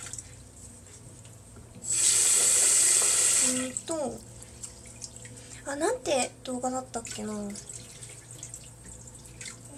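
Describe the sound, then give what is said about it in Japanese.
A tap runs loudly for under two seconds, a steady hiss of water as rice is rinsed, then shuts off and a woman starts talking quietly over faint background music. “お米研ぎと読んだ本の話”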